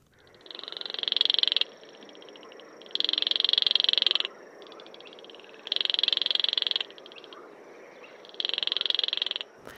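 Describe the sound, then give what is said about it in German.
Baillon's crake giving its dry, frog-like rattling call in four evenly spaced bursts, each about a second and a half long, clear over a quiet marshy background, recorded in the Bruchwiesen wet meadows. “Gut, dann mal kurz das Zwergsumpfhuhn aufgenommen in den Bruchwiesen.”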